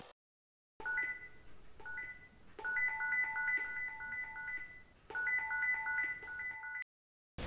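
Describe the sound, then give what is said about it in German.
A landline telephone rings with a bright electronic warble, sounding in several bursts separated by short pauses. It is fairly loud, with no one speaking. “Festnetztelefon.”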